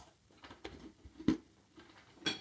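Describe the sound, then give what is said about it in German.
A few crisp crunches of someone biting into a crunchy Christmas cookie, spaced irregularly, the loudest in the middle, with quiet chewing noises between and no talking. “Genau, du musst da reinbeißen. So, dann so, oh. Crunch.”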